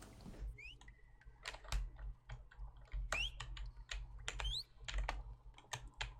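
Fast, forceful typing on a computer keyboard, a dense run of sharp, irregular key clacks, with faint electronic chirps and a low hum in the background.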